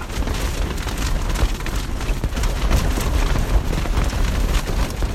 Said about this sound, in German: das sind Aufnahmen aus dem Inneren eines Zeltes. Hoch oben auf der windigen Flanke des Mount Everest. Und zwar mitten im Winter.